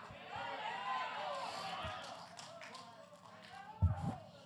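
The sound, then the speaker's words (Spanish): A church audience applauds during a sermon in a dense, steady wash of clapping mixed with raised voices, fading slightly toward the end, where a couple of dull low thumps stand out. “Si ese aplauso es para mí está bueno, pero si es para Dios tiene artritis.”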